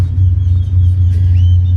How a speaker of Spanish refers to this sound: Y bueno, ya hay varios carros en el parqueo listos preparándose para subir al gimnasio.